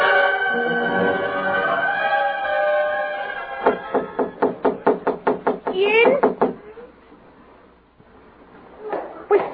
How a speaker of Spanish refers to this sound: diablos toca por aquí, por la puerta de servicio?